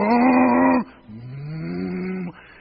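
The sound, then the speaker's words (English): A voice imitates the diesel engine of a borrowed stump-removing machine starting: a loud, buzzing hum that cuts off, then a longer, slightly rising drone that swells and stops abruptly. No words are spoken. “Fires that paper. got a diesel engine.”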